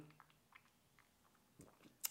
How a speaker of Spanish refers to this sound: Bueno, primero doy un trago. Mm.